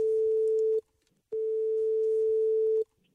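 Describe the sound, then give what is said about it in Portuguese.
A telephone ringing tone on an outgoing call placed by RGFM radio for its Doidas por Malas contest: a steady, fairly loud single-pitch tone plays in two long bursts separated by a short silence, with no one speaking. “Vamos lá, tentar aqui, fazer a chamada.”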